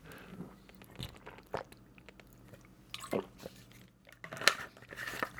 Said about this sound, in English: Sorry if my voice sounds weird right now. Let me take a sip of water.